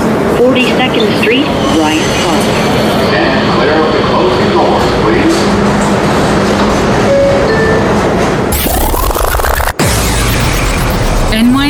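A New York City subway E train running via the F line roars loudly from inside the car, wheels rumbling and squealing, while a recorded onboard announcement plays over the noise; the sound shifts abruptly near the end, with a sharp click.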